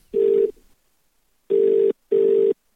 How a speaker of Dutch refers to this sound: Ik bel hem nu.